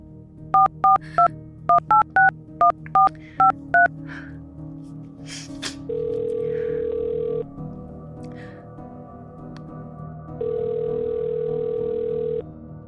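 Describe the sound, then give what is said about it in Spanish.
About ten quick touch-tone beeps as a phone number is dialed to call a cell phone, followed by two long, steady ringing tones with a pause between them, heard clearly with no talking. “Estás llamando al celular”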